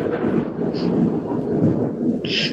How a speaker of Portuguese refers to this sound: Tem um trovão aqui.